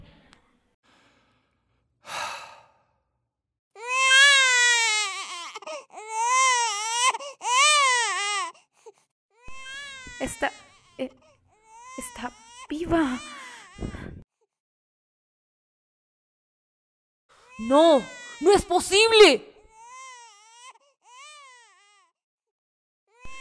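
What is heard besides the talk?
baby crying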